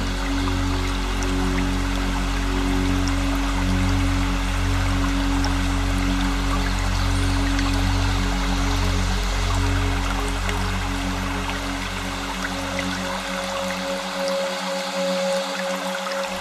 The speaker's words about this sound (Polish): szum małego strumienia ogrzewanego promieniami słońca.